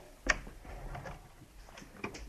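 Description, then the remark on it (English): A sharp wooden clack followed by quieter knocks and scrapes as the small drawers of an ebony cabinet are pulled open and handled, with a second click near the end and no talking. “Oh, there are numerous little... Numerous drawers.”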